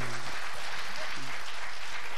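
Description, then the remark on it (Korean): A crowd breaks into steady applause lasting a couple of seconds, with a few brief excited voices calling out over the clapping. “박수 한번 부탁드리겠습니다.”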